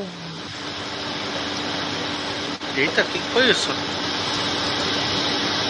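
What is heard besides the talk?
blender mixing a smoothie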